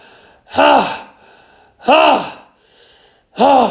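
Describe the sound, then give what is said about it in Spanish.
A voice imitates three loud, strained grunts of a man lifting weights, each a short rising-and-falling vocal burst, evenly spaced with brief pauses between them, forceful. “Y lo veo y está haciendo pesas.”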